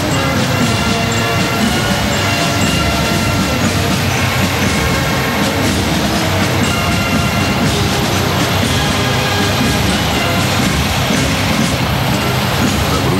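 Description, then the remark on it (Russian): A column of combat and transport-loading vehicles of a remote mine-laying engineering system, from the 1st Brest-Berlin Engineer-Sapper Brigade, rumbles past on Red Square, a loud, steady engine drone with grinding mechanical clatter that holds for the whole stretch, no voices over it. “площадке Красной площади колонна боевых и транспортно-заряжающих машин инженерной системы дистанционного минирования первой Брестско-Берлинской инженерно-саперной бригады.”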